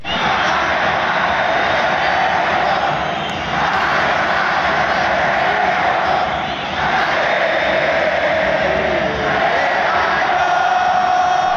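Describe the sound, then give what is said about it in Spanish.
A packed stadium crowd of Chivas supporters roars without pause at an away match in La Bombonera, a dense, loud wall of cheering that dips briefly a couple of times and swells back, with no single voice standing out. “Fíjate, e, e, escucha cómo se oía la bombonera. La bombonera de visita.”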